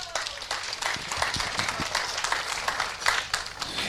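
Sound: applause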